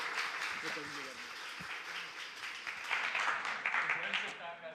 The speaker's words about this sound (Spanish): lo recibimos con un fuerte aplauso. Lo bendecimos en el nombre del Señor.